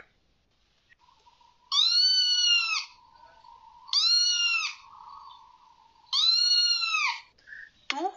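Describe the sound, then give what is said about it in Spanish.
A cat that has walked into a room meows three times, each call long and drawn-out with a rising then falling pitch, spaced a couple of seconds apart, clear with no talking. “Entra un gato y se sienta y mira a su alrededor muy lentamente, con aire de indiferencia.”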